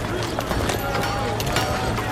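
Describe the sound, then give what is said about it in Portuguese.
A large ox-drawn cart loaded with marble stone slabs rolls past along a crowded street, its hooves clopping in an uneven rhythm over a dense, steady bed of crowded street noise and indistinct murmuring voices. “Já vem aí outra grande carroça carregada de lajes de pedra mármore. Sim, aquela puxada por bois.”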